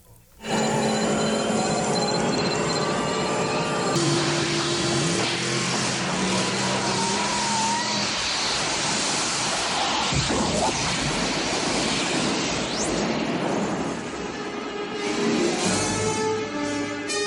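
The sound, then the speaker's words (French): A car engine runs steadily and loudly, layered with electric humming tones and a rushing noise, with a sudden whooshing surge midway, like a film sound effect. “Je vais vous mettre un petit extrait où elle fonctionne dans le film, ou en tout cas on l'entend avec le doc et euh, Marty qui est juste à côté, où ils envoient le chien pour la première fois dans cette voiture dans le futur.”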